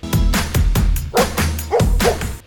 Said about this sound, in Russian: Да, конечно, там немного немного гипертрофирована, то есть я никак не корректировала ее лай, ну, мне нужно было для видео, чтобы он продолжался, но в целом это была наша реальность.